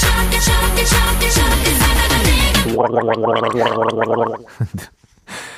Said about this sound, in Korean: 이 가글 소리는 누가 하는 거죠? 아, 어떤 청결하신 분이, 네, 점심 식사하시고 바로 가글하는 소리를 녹음 받아와서 이렇게 사용 중에 있습니다.